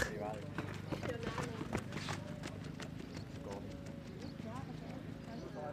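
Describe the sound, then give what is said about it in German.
Many running shoes pound the ground in a fast, overlapping rhythm during a group race, a dense steady patter of footfalls from the group of runners passing by, with a constant low background rumble. “Und auch das ähm, Dämmen der Schuhe, der von Schritt, das Tempo, das tönt so Einfach professionell.”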